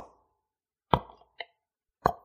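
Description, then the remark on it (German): Three sharp knocks at uneven intervals in silence, the middle one lighter and shorter, each a dry, hollow rap with a brief ringing tail. “Und dann geht das Kind beim dritten Mal klopfen auf der Decke”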